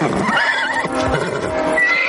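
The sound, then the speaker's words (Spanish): A horse whinnies loudly, a wavering high-pitched neigh that trembles and slides in pitch for about two seconds, with a faint clip-clop of hooves underneath, as it pulls a pulley mechanism that a man is setting up in a busy square. “Mientras tanto, en la concurrida plaza un hombre prepara un mecanismo de poleas ayudado por el tiro de un caballo.”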